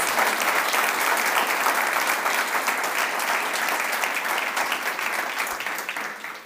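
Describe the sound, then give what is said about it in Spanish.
A crowd applauds steadily, a dense wash of many hands clapping at an even, loud level that tapers slightly near the end. No one speaks over it. “give a strong applause.”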